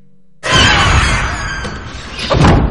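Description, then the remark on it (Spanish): In the film Crimson Peak, after a moment of silence, a door slams shut with a sudden loud bang, followed by a sustained rattling rumble and a second heavy thud near the end. No voices are heard. “Eddie cierra. Escucha a través de la puerta.”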